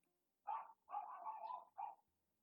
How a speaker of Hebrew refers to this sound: בבקשה מדי פעם לשים לב איך הוא עוזר לנו בנביחות שלו לצאת מהמחשבות שלנו, מהנדודים שלנו אחרי המחשבות, לחזור אל הרגע הזה, אל הנביחות